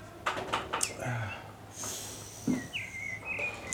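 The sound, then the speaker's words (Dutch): A bird sings outside, heard through an open sliding door of a house on a cool spring day with a fresh breeze: a few thin whistled phrases rising and sliding, set against soft outdoor ambience with some low rustling. “Ik hoop dat jullie een beetje die vogel kunnen horen.”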